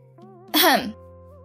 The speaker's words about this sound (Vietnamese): cụ lý hắng giọng ra hiệu cho anh lính im bặt